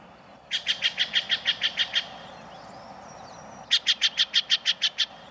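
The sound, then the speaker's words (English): A Steller's jay, a common jay of the western states, gives two loud, harsh bursts of rapid repeated notes, about ten each, separated by a short pause, clear over faint outdoor background. “This loud, raucous call belongs to a common jay of the western states, the Steller's jay.”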